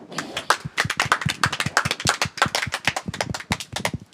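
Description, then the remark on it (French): A crowd applauding a rapper at the end of the instrumental, with a steady stream of overlapping hand claps at moderate loudness lasting the whole moment, without any voices standing out. “C'était la fin de l'instru, Déjà, gens peut vous applaudir.”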